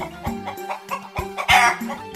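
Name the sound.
chicken clucking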